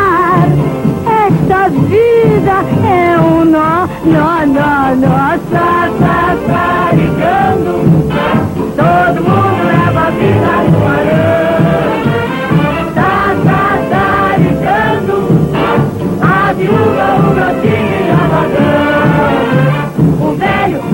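A recorded song from the 1952 film Tudo Azul plays loud and steady throughout, a woman singing a lively melody in Portuguese over a full, bouncy instrumental backing with no pauses or talking.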